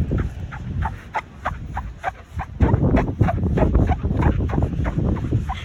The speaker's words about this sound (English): Number three, what I learned in Gold Coast is that some of the beaches here are very squeaky. Let me show you an example. Listen to this.